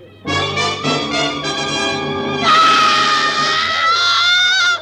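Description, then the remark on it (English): A woman throws up her hands and shrieks in a long, shrill, sustained cry, loud, climbing higher and more piercing halfway through before trailing off. “And then she, she threw up her hands and shrieked.”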